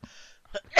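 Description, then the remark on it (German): A single loud sneeze: a breathy intake followed by a short catch and then a sharp, explosive burst of air at the end. “Gesundheit.”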